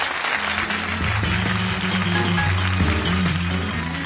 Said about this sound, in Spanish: Otro aplauso de esos que tenemos por ahí, Juan, por favor.